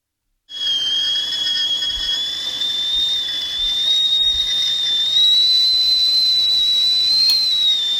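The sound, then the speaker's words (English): A kettle whistles at a boil, one sustained high-pitched tone that wavers slightly and rises a little in pitch, with a steady hiss of steam underneath. It starts abruptly and holds loud throughout, without any voices. “The kettle just boiled.”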